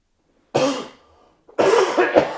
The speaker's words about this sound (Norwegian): Jeg må bare hoste litt. Jeg tar og henter litt vann.